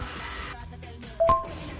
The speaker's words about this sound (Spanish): Levanta el celular del compu porque debe ah, estar haciendo. Hace interferencia.